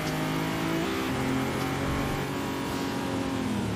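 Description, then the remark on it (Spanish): A car engine in a racing video game drones loudly and steadily, its pitch holding and then shifting slightly as it revs while the car weaves through traffic, with no voices. “Mira qué guapo haciendo swimming ahí entre, entre el tráfico.”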